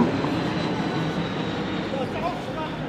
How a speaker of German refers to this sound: Oh, hier. Ein Flugzeug. Ein Flugzeug. Das Aufsteigen der Flieger, das kann nur die Bösen sein.